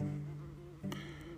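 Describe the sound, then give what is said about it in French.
A wasp on a person's hand in a forest buzzes right up against the microphone, a steady droning hum with pitch shifts as it moves, briefly louder and rougher midway through. No one speaks. “Oups, j'ai une guêpe qui me fait des bisous sur la main, j'aime pas trop ça.”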